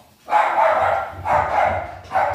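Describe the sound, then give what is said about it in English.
A dog going crazy barks three times in quick succession, loud, each bark sustained and harsh with short gaps between them. “Sorry, my dog is going crazy right now.”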